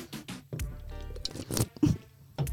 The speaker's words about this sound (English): Sip it. I heard that slurp. Yeah, I did too. It was bomb.